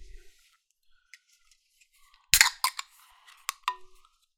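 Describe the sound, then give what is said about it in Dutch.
A blueberry-flavored drink with basil seeds being opened: a sharp crack followed by a quick series of smaller clicks and snaps, then quiet, with no one talking. “Ik uh, ga hem eens openmaken wil me laten verrassen hierdoor.”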